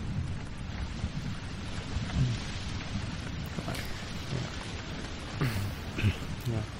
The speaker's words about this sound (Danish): vide, hvor lang tid den storm kommer til at være der, var Emil? Det ser slemt ud, synes du ikke?